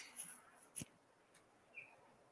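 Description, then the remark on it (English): Faint osprey calls outdoors on the side of a hill: a couple of brief high chirps separated by quiet gaps, with one sharp tap partway through and no one talking. “I hear birds. We hear birds.”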